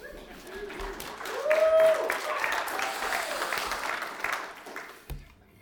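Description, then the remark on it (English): A short round of audience applause for having survived the pandemic: dense, steady clapping that swells in the first couple of seconds, holds, then tapers off and stops abruptly near the end, with a brief voiced cheer mixed in. “I think that's cause for applause.”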